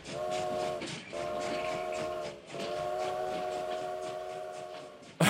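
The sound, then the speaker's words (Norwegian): A train whistle blows in long sustained blasts, cutting out briefly and sounding again twice, over the steady rumble and clatter of a train getting underway. “Nå går frokosttoget! Alle om bord!”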